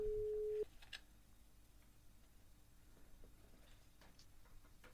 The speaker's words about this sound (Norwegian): Vi ringer Eirik Bjørne på direkten